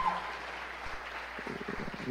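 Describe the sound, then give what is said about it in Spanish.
A church audience claps for the church's workers and their effort, a steady, dense patter of applause that holds at an even level, with a few low thumps and a voice starting to speak near the end. “Vamos a darle un fuerte aplauso a todo el esfuerzo que ellos hacen.”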